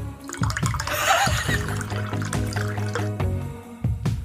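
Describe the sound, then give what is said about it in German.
Ramazzotti liqueur glugs from a bottle into a glass, with a steady gurgling pour and a few splashy bursts lasting several seconds; no one talks. “warte mal, ich gieße mir erstmal einen Ramazzotti an, der macht das Original so.”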